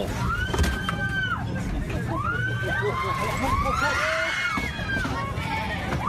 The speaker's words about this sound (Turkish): Yolcu otobüsü denizin tam ortasında beşik gibi sallanmaya başladı. Sağa sola yatan deniz otobüsünde geçen her saniye korku ve panik daha da arttı. Yaklaşık 200 yolcu tedbir amaçlı can yeleği giydi. Çığlık seslerinin arasında fenalaşanlar oldu.